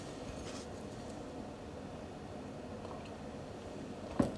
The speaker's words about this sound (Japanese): えー、ではですね今ファンヒーターを、えー、止めていきましたので、えー、ファンヒーターのねあのモーターが、え止まって静かになりましたら朗読を始めていきたいと思います。